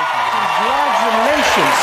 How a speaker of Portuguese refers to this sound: Aí ele a galera aplaude, né?